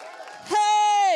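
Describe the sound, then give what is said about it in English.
An audience cheers in celebration of the Lord, a noisy, blended roar, then one loud sustained shout rings out over it, holding a steady high pitch before sliding slightly down. “Can you give him a clap offering? Can you give him a shout?”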